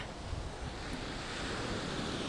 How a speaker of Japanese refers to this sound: 波の音、こちらも聞こえてますかね、今、ですね鎌倉高校駅前にある海に移動してまいりまして、そちらで収録をしております。